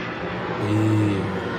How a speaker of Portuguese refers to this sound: E, e, eu percebo mais um avião passando.